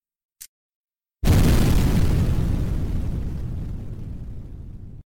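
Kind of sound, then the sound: sound effect, explosion sound effect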